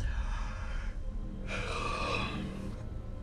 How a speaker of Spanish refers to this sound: Es como lo que sucede cuando alguien en un espacio determinado bosteza